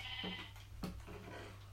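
A sheep bleats in short, nasal bursts as it is hit, two quick cries followed by a longer wavering one, clear over a steady low background hum, with no talking.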